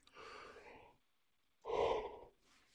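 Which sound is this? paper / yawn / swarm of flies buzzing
yawn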